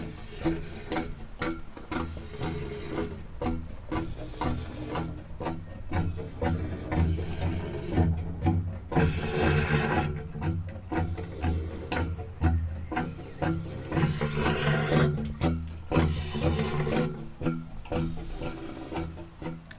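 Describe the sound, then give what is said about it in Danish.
A steady wash of trickling, splashing water runs throughout, dense and continuous with faint tonal resonances and occasional brighter surges of hiss, no voices present. It comes from 'Vind og vand' by Frode Gundorf Nielsen, a new permanent sound sculpture in the garden of the Kulturhuset, inaugurated at a festival opening. “vi kører også forbi Kulturhuset Gemsing Hoved, hvor der i forbindelse med festivalens åbning var indvielse af en ny og permanent lydskulptur i Kulturhusets have.”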